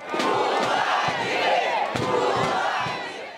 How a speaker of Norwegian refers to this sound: Sett Lula fri, roper PTs tilhengere på et valgmøte her i Rio.